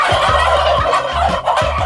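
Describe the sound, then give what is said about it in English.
A turkey gobbles loudly, a rapid, warbling burst of repeated throaty calls that fills the whole moment with no other sounds around it. “Okay, guess it's turkey time.”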